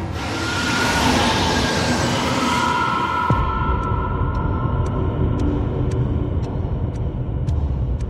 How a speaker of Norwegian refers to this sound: Togføreren nøler ikke et sekund. Han trykker ned bremsen alt han klarer. Og Samtidig så hører han at togføreren på det andre toget bremser